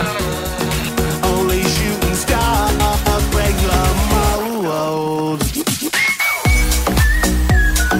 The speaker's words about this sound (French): ils ont publié pour célébrer les 20 ans de cette chanson-là un remix un peu à saveur tropicale